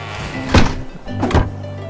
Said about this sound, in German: So, ich mache mal die Tür auf. Dann können wir wieder raus gleich. Ich schätze mal, die muss, muss auf sein.